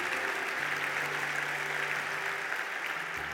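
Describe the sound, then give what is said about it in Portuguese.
A church audience applauds during a Portuguese-language sermon: many hands clap in a dense, steady wash of sound that holds at an even level for a few seconds, with a faint low sustained tone beneath it. “Esse você dava um aplauso nessa, porque ficou bonito.”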